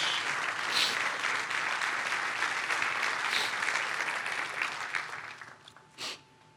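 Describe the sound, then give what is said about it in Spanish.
Sustained applause from a large crowd in a church, steady and dense for several seconds before tapering off, with a final isolated burst near the end. “Dele un fuerte aplauso a Dios.”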